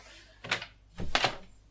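door being closed

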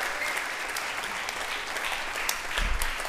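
applause

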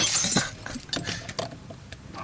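drinking glasses clinking

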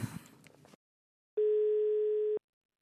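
telephone ringing tone

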